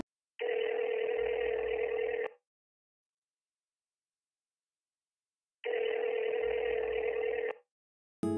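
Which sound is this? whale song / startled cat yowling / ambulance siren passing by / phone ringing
phone ringing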